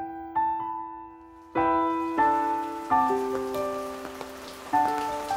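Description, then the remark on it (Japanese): Steady rainy-season rain patters and hisses in the background while soft, sustained piano-like notes ring out over it, each new chord struck a second or so apart. “今年は今年もまた、梅雨が来た。”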